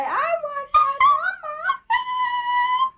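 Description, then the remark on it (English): A dog yowls in a run of short, speech-like howls that rise and fall in pitch, as its owner tries to get it to say "I want my mama", then holds one long, steady howl. Fairly loud, with no other sounds. “and her dog she was trying to get her dog to say "I want my mama" or some something like that, and the dog's just like, boy, I want my mama!”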